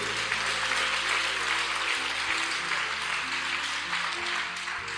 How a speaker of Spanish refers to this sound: Y amén, aleluya. Dale fuerte ese aplauso a Cristo.